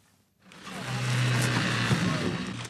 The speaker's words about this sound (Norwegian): Brannvesenet bruker motorsag for å nå skadde barn i baksetet etter to biler har frontkollidert. Heldigvis er det bare en øvelse denne gangen.